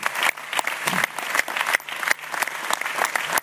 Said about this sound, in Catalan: Per tant, un fort aplaudiment. El Leo Messi.